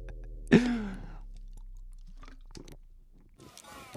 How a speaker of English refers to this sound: I had to take a drink of water. I had to. My my throat was was uh, closing up on me.